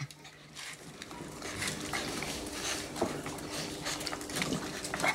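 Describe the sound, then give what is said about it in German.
A small dog, brought in by tourists and being treated at a veterinary clinic in Greece, makes restless snuffling and panting noises in short repeated bursts, with a steady low hum behind it and no one speaking. “in einer Tierarztpraxis verabredet, wo ein Hund, der vor kurzem von Touristen gebracht wurde, behandelt wird.”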